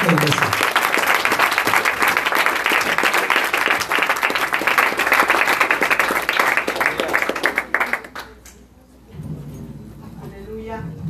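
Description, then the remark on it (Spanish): An audience at a church service claps and applauds steadily for about eight seconds as an offering of praise to God, in a dense, sustained burst, then the clapping fades out and a voice begins speaking. “Oh, en ofrenda de palmas Dios de Dios.”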